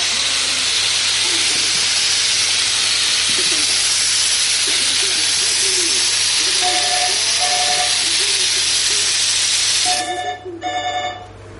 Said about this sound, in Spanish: Luego echa el ambientador en la habitación de Amador